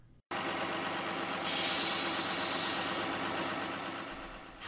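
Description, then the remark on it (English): The engine of a Wave Transit 301 city bus in Wilmington idles steadily with a low rumble. Partway through, a brief hiss like air brakes rises over the drone and then fades. “And you got to spend some quality time on the bus.”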